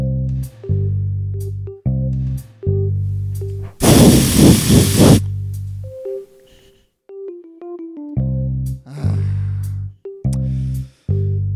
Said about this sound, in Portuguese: Os marimbondos, nossa, eu espirrei desodorante aqui pela, no, no meu microfone. e aí eu encosto a boca no microfone, agora minha boca está com gosto de desodorante.